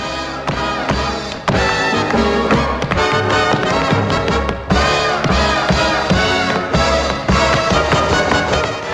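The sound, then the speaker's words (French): Rapid, crisp tap-dance footwork by John Kelly, in an athletic jazz style, clatters in quick bursts over loud, continuous orchestral music, the taps landing in lively, syncopated rhythms throughout. “John Kelly, c'est quelqu'un qui a un style de claquette euh, très athlétique, hein.”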